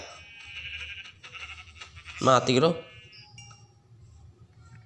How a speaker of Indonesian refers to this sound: Uh, di sini ada domba coklat juga, geng.